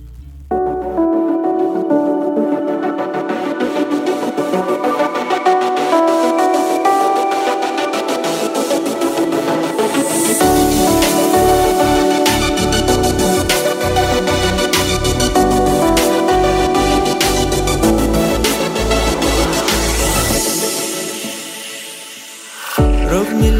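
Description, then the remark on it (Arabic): A Christian hymn plays loud and steady, opening with sustained instrumental harmony before a beat with bass and percussion comes in around the midpoint, then fades at the end. “تعالوا نستمع إلى هذه الترنيمة”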